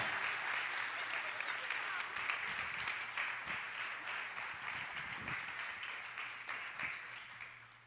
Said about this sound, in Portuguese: Dá um aplauso ao Senhor, irmão. Aleluia. Por celebração, por alegria, por festa.